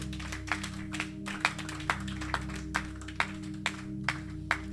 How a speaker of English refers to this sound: And give a clap offering to the Master.